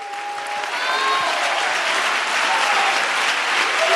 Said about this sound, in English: Somebody clap your hands uh, and give God praise.